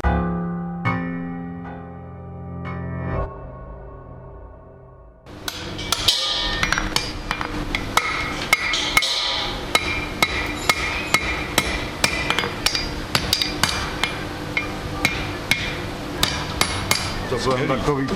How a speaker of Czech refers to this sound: výtvarník má štětec, sochař má hlínu, či My máme kladiva. Kladiva. kladivo a kleště. Kladivo a kleště. Dva atributy, které souvisejí s prací kováře. Kladivo a kleště.